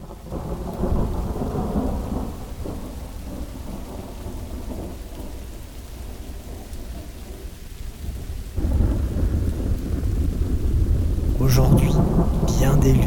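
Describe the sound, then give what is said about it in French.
Steady rain pours down while low, rolling thunder rumbles throughout, swelling louder partway through as the storm grows heavier. No voices are heard. “Et à la fin de leur numéro, la pluie tomba.”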